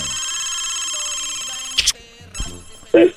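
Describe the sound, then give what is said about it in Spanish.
A telephone rings steadily with a bright, sustained electronic tone, then cuts off into a few clicks and a short burst of noise as the line seems to pick up. “A ver, suena el teléfono ahí. Sigue sonando, sigue sonando.”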